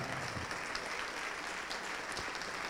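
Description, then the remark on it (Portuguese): A church audience applauds steadily, a dense, continuous wash of many hands clapping at an even loudness throughout, with no voices standing out. “Vamos aplaudir mais, igreja.”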